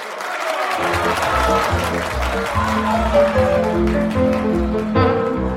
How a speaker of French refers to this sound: Ce premier long métrage d'animation est un immense succès. La foule applaudit debout pendant des dizaines de minutes.